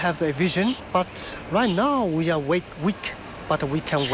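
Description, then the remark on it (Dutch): Crickets chirp steadily in the trees of a park by a residential complex, a thin high buzz running under a person talking in the foreground throughout. “In de bomen snerpen de krekels”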